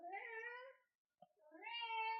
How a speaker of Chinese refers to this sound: 你听到猫叫了吗？弟弟在叫， 听到了，听到了。